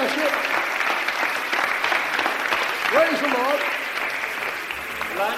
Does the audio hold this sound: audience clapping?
yes